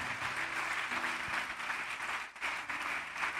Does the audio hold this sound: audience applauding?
yes